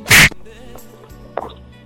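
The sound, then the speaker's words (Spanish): A single loud, sharp slap lands right at the start, like a person being struck, followed by quiet background rustle and a softer knock shortly before the end. “Es que no puedo, me acabas de pegar.”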